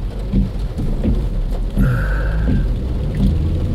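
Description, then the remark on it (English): Steady rain hisses across the whole clip over a deep, continuous low rumble, with soft periodic thumps and a brief tonal whine partway through; no one speaks. “Can you hear the rain?”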